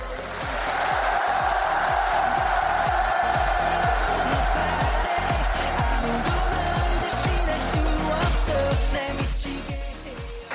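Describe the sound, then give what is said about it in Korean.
A large crowd applauds and cheers loudly and steadily for President Moon Jae-in for about ten seconds, a dense wash of clapping and shouting with a regular rhythmic pulse running underneath. “우리 모두 문재인 대통령에게 열광적인 박수와 열렬한 환호를 보내줍시다.”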